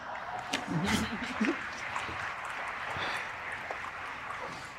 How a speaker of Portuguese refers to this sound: Palmas.